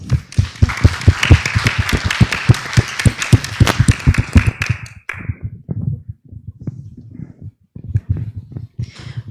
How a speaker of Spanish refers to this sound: Así es que un aplauso para los estudiantes.